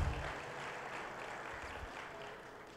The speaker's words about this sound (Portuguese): Podemos aplaudir a Deus?